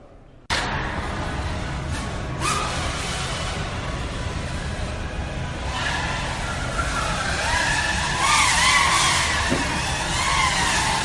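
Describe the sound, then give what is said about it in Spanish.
FPV racing quadcopter drone motors whine loudly and continuously, with a rushing roar that swells and shifts pitch as the drones pass one of the points of the course, growing slightly louder toward the end. “os ponemos los, eh, el sonido de los motores”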